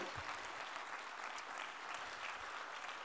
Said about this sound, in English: Oh, oh come on, clap your hands unto the Lord.